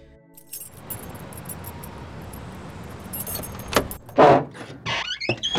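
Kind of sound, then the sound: vehicle, getting into a car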